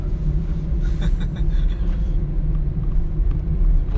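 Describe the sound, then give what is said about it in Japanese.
A steady, loud car engine drone on the road while driving home toward Settsu, Japan, with the high, wasp-like buzz of about five mopeds ridden by a biker-gang-like group right in front, over a constant low rumble. No one speaks. “今もうなんかもう摂津の方車で帰ってるんですけど目の前もう暴走族みたいなの出てきてうっとしいですね バイク5台ぐらいで原付に乗ってますねハエですハエなハエな感じの音が”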